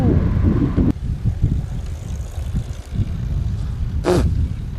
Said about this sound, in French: Et tout ça, ça se passe euh, à Bixi vous l'entendez, balade dans les rues d'une métropole canadienne.